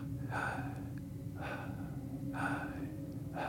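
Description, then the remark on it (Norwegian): Deep breaths drawn in through the nose, about four airy intakes in a slow, steady rhythm over a low constant hum, with no talking, as a person breathes in on the words "I am" to gather themselves and start the day. “Så puster jeg bare inn 'jeg er, jeg er, jeg er her'.”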